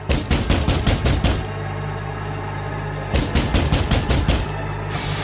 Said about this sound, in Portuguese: Eles batem na porta por dois minutos.